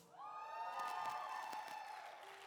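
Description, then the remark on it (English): A crowd cheers and whoops steadily for a couple of seconds, with scattered hand claps breaking through the sustained voices, moderately loud, as an audience applauds the leadership at CLC. “Sound like it's raining in here.”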